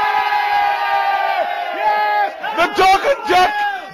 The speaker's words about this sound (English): Cue some very happy Wales fans. I'm in Merthyr Town Football Club, and this is for Jason Cundy.